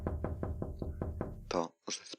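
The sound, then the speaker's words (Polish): Six quick, evenly spaced knocks rap on a window, fairly loud and steady, then stop as a short burst of voice follows. “Obudził mnie stukot w okno”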